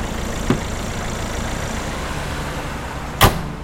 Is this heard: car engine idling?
yes